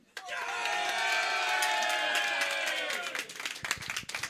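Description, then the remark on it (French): An audience bursts into sustained applause mixed with cheering and whoops, loud and dense for about three seconds before thinning into scattered claps, clapping in answer to a call for those who did not care that yesterday was Saint Patrick's Day. “Par applaudissement, ceux qui s'en calissaient que c'était la Saint-Patrick hier.”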